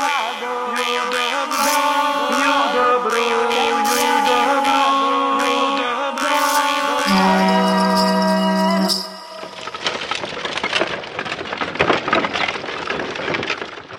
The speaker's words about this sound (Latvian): Šodien, kā jau jūs faunā dzirdat, zirga pajogā vesti ciemojamies Rucavas sudargos pie māsām tapiņām